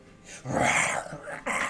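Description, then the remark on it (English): A voice imitates a deep, rough animal growl, fairly loud, one sustained snarl rising and falling before a shorter second burst. “stares back at you in the face and growls.”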